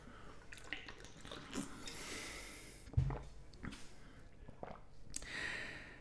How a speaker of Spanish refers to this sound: Para esta otra voy a tomar un poquito de agua